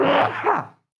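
A single sneeze, fairly loud, with a short intake followed by a sharp voiced burst that quickly fades into silence.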